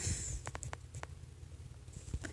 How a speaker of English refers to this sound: That's the sound of you breaking trees. You break, once you're out of the cave, you break trees, like I just told you.